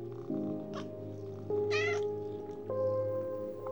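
More than a thousand cats crammed into small, cramped spaces meow and wail over one another in a steady, overlapping chorus, with long plaintive cries rising in pitch and a wavering high yowl in the middle, fairly loud throughout.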